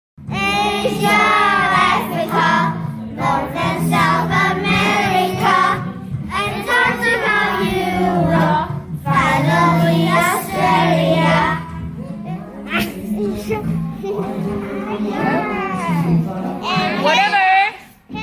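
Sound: children's choir singing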